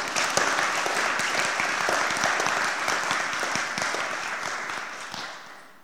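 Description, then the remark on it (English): A church audience applauds warmly after a prayer during a service, a dense, steady patter of many hands clapping together for several seconds before gradually thinning out and fading at the end. “Should we give her a round of applause?”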